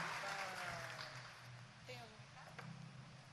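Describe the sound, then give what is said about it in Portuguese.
A crowd at a prayer group claps steadily after a raffle number is drawn for Nossa Senhora, Rainha da Paz, a dense wash of applause with voices calling out and speaking over it, loud before tapering slightly near the end. “Palmas! Viva Nossa Senhora!”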